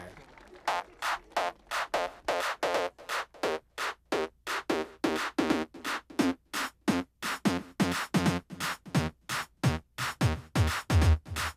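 An upbeat mambo-style pop song plays loud and up front, driven by punchy, evenly spaced stabs that repeat in a fast, steady rhythm throughout.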